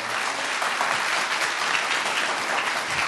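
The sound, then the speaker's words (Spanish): Sustained audience applause for a jazz quintet and the Intersecciones team at a live concert in the Sala Julián Carrillo. Dense, steady clapping from many hands, loud and even throughout, with no voices standing out. “Y aunque este concierto es en vivo y en tiempo presente, pues demos un aplauso también para todo el equipo de Intersecciones, para este quinteto de jazz.”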